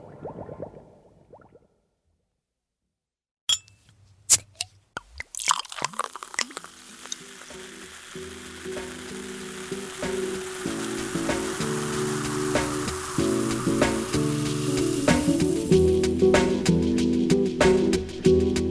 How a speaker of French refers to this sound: Euh, que c'était ultra aérien et, atmosphérique. il y a des, de petites bulles, je savais pas comment décrire, mais dans, le fond, tu as une espèce de petites bulles comme ça, qui ça. là, qui donne un côté ouais, aérien